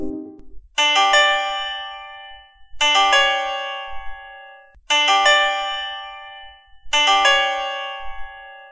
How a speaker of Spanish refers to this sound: Este es un gran ejemplo, el leitmotiv que marca los peligros de viajar en el tiempo, el cual suena así.